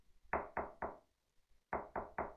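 knocking on a door

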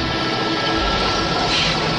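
train arriving

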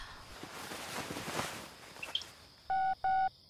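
telephone number being dialed

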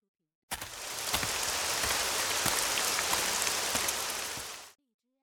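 rain falling

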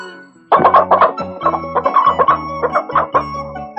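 rooster crowing

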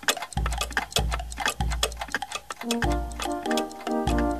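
clocks ticking

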